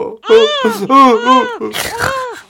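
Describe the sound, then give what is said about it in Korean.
A baby's crying recorded by the mother on a Christmas card sent to the father in the army, in three or four wavering, high-pitched wails, fairly loud, ending in a breathier, sputtering cry, with no other voices. “아내가 아기 크리스마스 카드에 우리 아기 목소리를 녹음해서 보냈습니다.”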